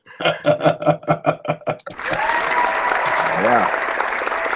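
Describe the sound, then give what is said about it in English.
A voice chants short rhythmic syllables for about two seconds, then a hand-clapping sound effect of crowd applause takes over, dense clapping at a constant, fairly loud level until the end. “Took me that long to find the hand clapping.”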